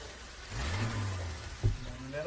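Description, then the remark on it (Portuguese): A steady, low car engine drone fills the cabin, rising briefly as the motor revs, with a muffled thump partway through and a constant rumble underneath. “Tem que colocar uns três cobertores na ah, lá, lá. o barulho”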